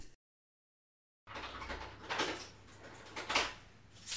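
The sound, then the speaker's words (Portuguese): A bedroom door opens indoors after a moment of silence, with a low steady hum and two brief scraping, creaking bursts as it swings, moderately loud, with no voices. “Eu abro a porta do quarto.”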